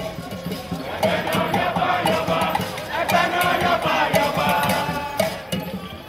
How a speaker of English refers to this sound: A new Oba was coronated in October 2016, Oba Ewuare II. We're hearing the Ekasa dance performed at his palace in Benin City, recorded by local television station ITV.